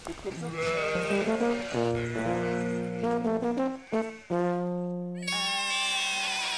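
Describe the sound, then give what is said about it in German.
Several sheep bleat loudly, their wavering calls overlapping almost without pause, with a few sharper, higher cries near the end, as a flock moves along on a sheep trek, grazing as it walks. “Und die dürfen noch laufen, ist auch gut, der Zug muss sein, das Ziehen der Schafe muss sein, beim Ziehen fressen die Schafe.”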